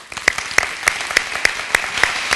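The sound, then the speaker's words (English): Congregation applause at Union Chapel welcoming guest speaker Fuad Masri: a dense, steady patter of many hands clapping, with one sharp clap standing out at an even, regular beat throughout. No voices are heard. “So please give a warm Union Chapel welcome to Fuad Masri.”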